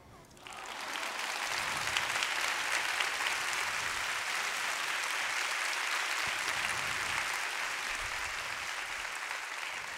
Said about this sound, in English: And I am very proud that that woman is here today. Would you guys give a round of applause for my mom?